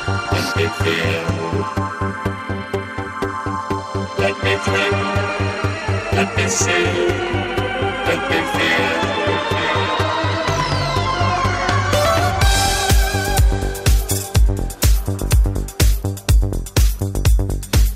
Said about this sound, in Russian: слышите хай-хет? Хай-хет, слышите? Он живой. Я слышу.